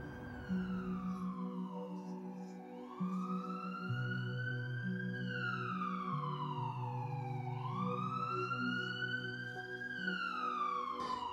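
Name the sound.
ambulance siren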